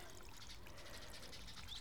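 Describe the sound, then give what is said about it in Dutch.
Water pours steadily into a shallow plant pot saucer, a continuous trickle and splash lasting a couple of seconds with no one speaking. “en dan nog even die schaal vullen met water, zodat de aarde ook van onderaf het water kan optrekken.”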